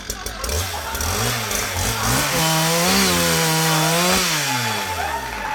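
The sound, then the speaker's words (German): A chainsaw runs loud for several seconds, its motor revving up and down in wavering surges without pausing. “Pläne zeichnen funktioniert in Hörgeschichten nicht so richtig. Motorsägen schon.”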